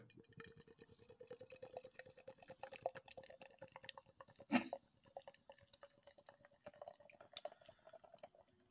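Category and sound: food or drink, beer being poured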